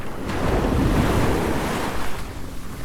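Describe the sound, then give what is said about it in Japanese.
Ocean waves wash onto a beach in a steady rush of surf, with wind buffeting the microphone throughout; one broad swell rises and slowly recedes, with no voices present. “波の音をお届けしています”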